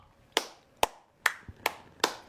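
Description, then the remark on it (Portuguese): Five sharp hand claps in a slow, steady rhythm, given as applause for 67 indicted people, each crisp and bright with a brief ring after it, with no voices in between and one soft low thump near the end. “Palmas aos 67 indiciados, pelo menos a maioria deles, tirando um ou outro funcionário, segundo escalão, que negociou propina.”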